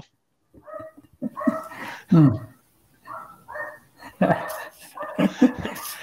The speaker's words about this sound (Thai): เอาสุนัขข้างบ้านคุณอ้วนเห่าเลยเนื้อเราเราจะไปลดยอดผู้ชมเขา